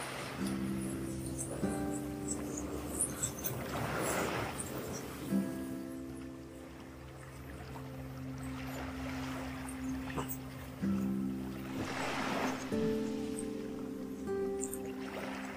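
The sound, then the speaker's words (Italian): Sea waves swell and wash onto the shore in repeated broad surges every few seconds on a day of nearly 20 degrees, moderately loud, with a steady tonal hum continuing underneath throughout. “Teo e le onde del mare”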